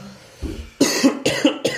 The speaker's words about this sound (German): Ja, der ist auch mit drin jetzt. Der Huster. Der Huster, den hört man jetzt auch schon über das neue Mikrofon, was vor dir steht.